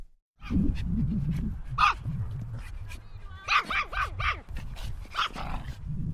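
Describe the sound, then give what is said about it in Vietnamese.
Several pet dogs bark and yip in quick, excited bursts, some high-pitched and whiny, as they run and play on a wide grass-carpeted field of about 6,000 square metres, over a steady low background murmur that continues throughout. “Vừa mở cửa bước vào, có thể thấy ngay khung cảnh các chú cún cưng đang tung tăng chạy nhảy trên khoảng sân vận động trải thảm cỏ rộng mát mắt, rộng khoảng 6.000 mét vuông.”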